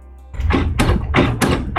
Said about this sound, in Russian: Так, э, при упоминании э, роботов мой принтер, который стоит рядом, решил проснуться, такой, я тоже робот. Я тоже хочу к тебе в желудок, или что, что, зачем он это делает?